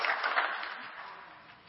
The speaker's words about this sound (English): They worked hard. We need to give them and everybody else a big old round of applause.